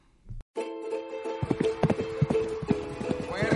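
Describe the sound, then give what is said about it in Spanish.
Horse hooves clip-clop in a quick, uneven series of sharp knocks over a steady humming, tonal background, starting after a brief thump and continuing to the end, as the horse performs its movements. “aplauso al caballo que estuvo haciendo bien los movimientos.”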